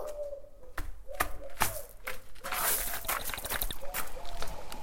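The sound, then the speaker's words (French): Footsteps of a person walking outside crunch over loose pebbles at a steady walking pace, each step a sharp gritty scrape, with faint bird calls in the background. “Là, vous entendez mes pas.”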